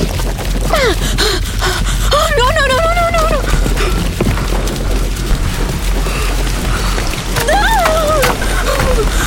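Loud splashing and churning as someone wades through cold, deep water up to the neck, continuous throughout, with sharp gasps and strained vocal sounds rising over the noise.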